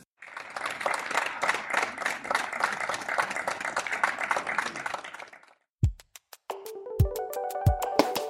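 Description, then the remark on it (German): Sustained applause from many residents clapping outdoors from their balconies on Elsa Brandströmstraße for several seconds, then it stops and a few sharp knocks and a tonal, music-like passage follow. “Das heißt, die Bewohnerinnen und Bewohner wollen eben ihre Nachbarn auch damit unterstützen, und jetzt hören wir uns einmal den Applaus an.”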